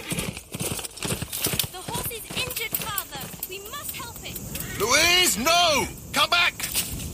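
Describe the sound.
Horse hooves clip-clop in a steady run of sharp knocks while voices talk over them and a horse-like whinny rises midway.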